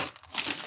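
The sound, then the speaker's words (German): A crinkly plastic bag holding protein snacks and fitness bars rustles as it is opened, a short burst of dry crackling with a brighter swell midway, fairly quiet and with no voices. “Ich möchte so gerne wissen, was in der Tüte drin ist.”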